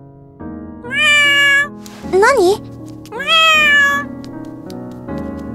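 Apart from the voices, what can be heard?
cat meowing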